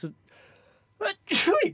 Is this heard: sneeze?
yes